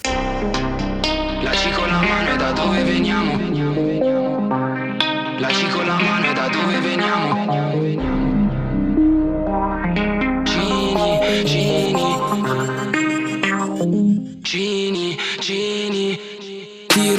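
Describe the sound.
A rap track plays loud and continuous, its vocals drenched in reverb and distortion effects over a steady bass-heavy beat, with brief breaks in the music partway through.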